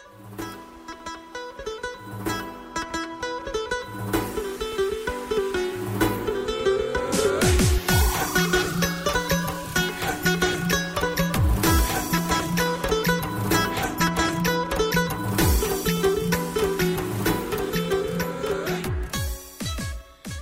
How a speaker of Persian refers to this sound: خب اگه اجازه بدین شما یک موسیقی گوش کنین من یه کوچولو برم برگردم ببخشید